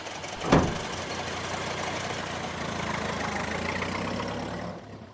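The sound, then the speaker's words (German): A car loaded with a large crate and gold bars starts with a brief thump, then runs with a steady, rumbling drone as it drives off, fading out near the end. No one speaks. “Der Wagen fährt ab.”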